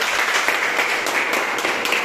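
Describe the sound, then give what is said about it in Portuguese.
A crowd claps steadily, applauding the Lord God, a dense wash of many hands with brief bursts of sharper claps throughout, fairly loud and sustained with no talking. “Aplauda o Senhor, seu Deus.”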